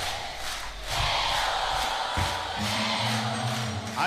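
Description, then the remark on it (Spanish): A big audience of girls screams loudly and without pause, a dense, high-pitched roar filling the whole stretch, with a low humming tone joining underneath partway through. “Ese grito de las chicas.”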